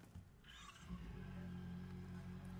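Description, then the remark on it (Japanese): A motorcycle engine in neutral cranks and catches, then settles into a steady, throaty idle with a low rumbling hum, with no talking. “いよいよエンジンをかけます。”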